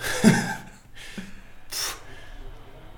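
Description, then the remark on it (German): A person puffs out several heavy, noisy breaths, short forceful bursts of air with a snorting edge, spaced unevenly across a few seconds. “schnauft.”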